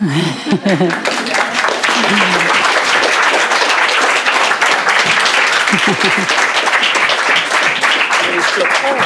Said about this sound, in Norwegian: Kan klappe for musikken.